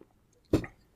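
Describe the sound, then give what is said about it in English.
A single wet gulp as a mouthful of organic lager is swallowed, one quick throaty burst against near silence, with no talking. “Oh, just it's dead hand gulps. Swallowing.”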